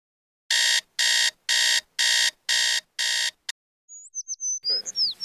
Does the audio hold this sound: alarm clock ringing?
yes